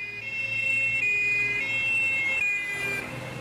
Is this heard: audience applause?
no